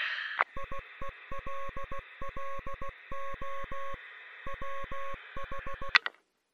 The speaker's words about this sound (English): I think I'm receiving something. God damn, I think I'm actually receiving. It, it, it sounds like Morse code.